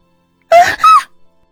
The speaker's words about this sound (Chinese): 两声尖叫同时响起。